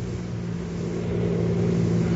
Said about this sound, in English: Sounds like a car heading this way. Snap off your light. Let me take a look. You're right. It is heading this way.